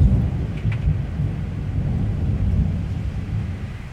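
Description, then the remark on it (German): A long, deep rumble of thunder from a thunderstorm rolls on steadily throughout, loud but not very close, with a soft hiss of rain underneath and no one speaking. “Aber die Blitz- und Donnergeräusche haben schon ein paar davon reinlassen.”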